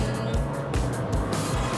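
Steady low rumble of a bus driving along, heard from inside the cabin, with a continuous engine drone and faint rhythmic thumps from the road beneath. The bus carries a group of candidates to a week of skiing.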